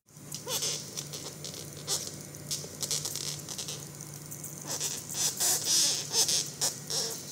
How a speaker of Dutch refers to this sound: want dit was het geluid van een boktor. Een gigantisch insect dat op zijn rug ligt en probeert recht te geraken. Beetje eng geluid.